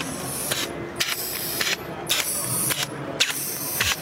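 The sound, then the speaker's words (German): A large four-legged robot, about the size of a wild boar, moving, its actuators letting out repeated sharp hissing bursts in an uneven rhythm over a steady mechanical rumble, fairly loud, with no one speaking. “Und tatsächlich jetzt hier neben diesem kleinen Tröd-Roboter ähm, gibt es noch einen anderen Roboter. Das ist ein richtiges, fieses Tier. Also ich würde sagen, der ist so groß wie ein Wildschwein.”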